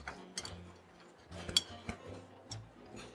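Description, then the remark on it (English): Sharp, hard taps of rock-hard crispy bacon against a surface, about half a dozen at an irregular pace, each with a brief hollow, slightly ringing resonance. Fairly clear, with no talking. “It sounds a little springy because it's echoing through the.”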